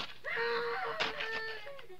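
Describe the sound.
A faint, drawn-out scream imitated by a human voice, wavering in pitch for about two seconds with a brief harsh break midway, heard alone without talk.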